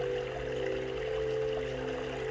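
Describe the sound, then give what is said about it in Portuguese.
Steady, continuous rush of flowing stream water in a background music track symbolizing purification, fairly soft and even throughout, blended with sustained low musical drone tones underneath. “Tá sentindo essa água purificando o seu interior?”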